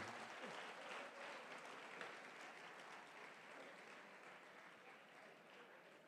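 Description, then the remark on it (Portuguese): A steady wash of audience applause from a large crowd at a church, many hands clapping densely and continuously at moderate loudness for the brothers of the audience, tapering slightly toward the end. “Uma salva de palmas para os irmãos aqui.”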